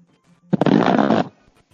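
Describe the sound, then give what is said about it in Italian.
A loud raspberry blown with the lips, a buzzy, sputtering burst lasting under a second that starts abruptly and stops, with near silence before and after. “È una pernacchia? Che cos'era? Era una pernacchia.”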